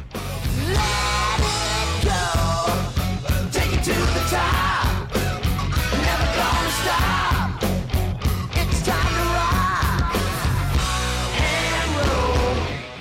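A loud, newly released rock song plays continuously, with belted, shouting vocals over dense distorted guitars and a steady, pounding drum beat, holding a high, even volume throughout.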